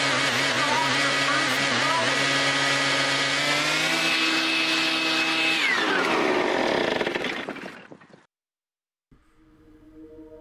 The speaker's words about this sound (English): We got every kind of leaf blower you could ask for! We got that one and this one!